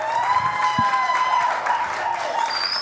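An audience applauds to welcome a guest on a Sunday show, in a steady, dense wash of clapping that holds at an even loudness for about three seconds, with a few sustained high whistle-like tones riding over it.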